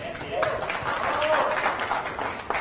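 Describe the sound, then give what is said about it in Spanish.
Sustained audience applause fills the whole moment, a dense, steady wash of many hands clapping at once, with faint voices or cheers mixed into the crowd noise. “Otro aplauso, por favor”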